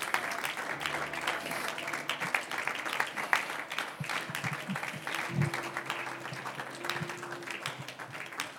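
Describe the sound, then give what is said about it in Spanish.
A crowd applauds the Lord steadily, dense overlapping claps forming a continuous wash of sound for several seconds, with a faint low hum and a few murmured voices beneath. “Ahora denle un aplauso al Señor de victoria.”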